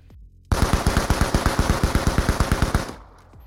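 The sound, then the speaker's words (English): A loud burst of rapid automatic gunfire on a gantry, roughly twenty evenly spaced shots in about two and a half seconds, then an abrupt stop with a fading echo. No voices. “Arihant got one of the assailants in the neck with a lucky shot, which was most likely a bullet that ricocheted”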